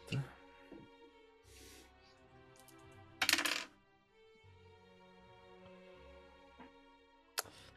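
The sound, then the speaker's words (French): A D8 and a D4 die, rolled for an intelligence check, tumble and clatter across a hard surface in one short, sharp rattling burst, with a few light clicks before and after and faint voices in the background. “Puis tu as des dés avec tes nouveaux dés. Oui, voilà, exact. Ok, fait que là, un D8 plus D4.”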